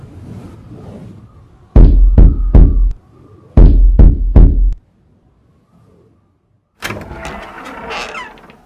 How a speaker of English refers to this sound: Freezing, blinded, and stumbling, I saw at last the fitful lights of an old manor house aged and crumbling on the hillside. I lumbered over to it and knocked desperately at the door.